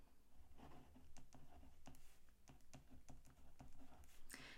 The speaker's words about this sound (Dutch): Ik voel de perfectionist in mij al bovenkomen, want ik ben dus sneller aan het schrijven. en niet met de pen waar ik normaal gezien mee schrijf.